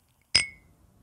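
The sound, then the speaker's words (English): A single bright clink of crystal champagne flutes touching in a toast, clear, with a high ringing tone that fades quickly into near silence. “How about a nice crystal flute of champagne?”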